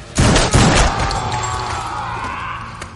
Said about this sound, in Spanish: Un tipo enorme lanza a John por los aires. John le dispara a las rodillas.